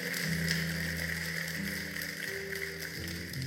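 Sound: loud audience applause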